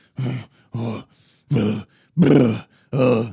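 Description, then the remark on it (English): A man's voice imitates an actor's grunting in a movie with five short, forceful vocal bursts in a steady rhythm, each separated by brief silence, loud. “like every 5 seconds he's grunting or making some kind of weird noise.”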